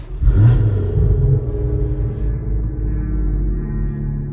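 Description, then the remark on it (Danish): The engine of a large BMW rumbles loudly and steadily, with a brief rev at the start before settling into a deep, continuous idle-like drone. “Historien begynder i en stor BMW.”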